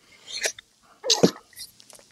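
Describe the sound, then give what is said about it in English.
A single sharp sneeze: a short breathy intake, then a loud explosive burst, followed by a few faint breaths and rustles. “thank you god bless you”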